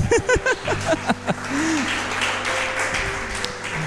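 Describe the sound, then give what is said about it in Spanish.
A brief voice gives way to a crowd applauding the Lord, a dense, steady wash of clapping that holds for about three seconds at a fairly even level, with a faint low hum underneath. “denle un aplauso al Señor, ¿no a mí?”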